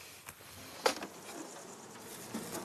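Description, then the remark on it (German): Honeybees buzz softly around a beehive, a low, steady hum with a few individual bees droning past, plus a brief sharp tap partway through, as a beekeeper who has calmed them with smoke fits grids over the hive entrances to collect pollen. No one speaks. “Dann setzt sie diese Gitter vor die Eingänge des Bienenstocks.”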